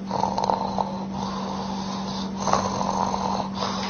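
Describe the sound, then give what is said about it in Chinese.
Soft, regular snoring of the ordinary kind, light and even, with a steady rhythm, each breath rising in a gentle rasp over a low constant hum, roughly one snore every second, even in loudness throughout. “一般的呃打呼噜，你比如说是仰卧位了，喝点酒，哎，我们就鼾声比较轻啊，而且均匀”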